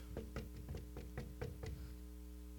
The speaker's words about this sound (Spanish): Y ese esclavo se iba. Y llegaba el momento que llegaba otra vez. tocaba la puerta.